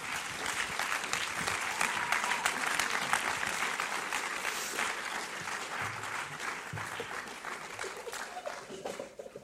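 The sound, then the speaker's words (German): A big round of applause from a crowd, dense sustained clapping that stays loud and steady for several seconds before gradually thinning out toward the end. “Geben wir Ihnen jetzt so einen richtigen fetten Applaus.”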